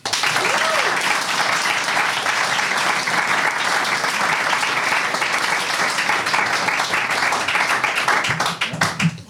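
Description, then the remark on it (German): Sustained, loud applause from an audience at the Nachbarschaftszentrum 17, a dense wash of many hands clapping at an even intensity for several seconds before it starts to thin out at the very end. “Also bitte nochmal große Runde Applaus.”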